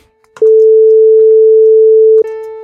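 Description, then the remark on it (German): A steady, pure electronic tone hums for about two seconds, then a louder piano note at the same pitch strikes right at the end and rings briefly before cutting off. “Hier, diese Struktur nutzt unser Gehirn, um zu analysieren, ah, hier haben wir es mit einem Klavier zu tun. Der Grundton ist auch 440 Hertz wie unser Sinuston.”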